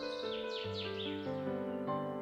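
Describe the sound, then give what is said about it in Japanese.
Several quick, descending bird chirps ring out in a rapid run near the start, layered over a steady, sustained musical backing that continues throughout at moderate volume. “Birds, said the frog mysteriously.”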